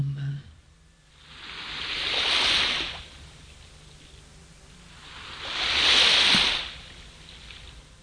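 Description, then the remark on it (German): Ocean waves break on a beach in two slow, broad surges, each swelling to a hissing wash and then receding into a soft background rumble. No one speaks. “Und nun fließt auch in mein rechtes Bein Schwere mit jeder Welle immer mehr Schwere.”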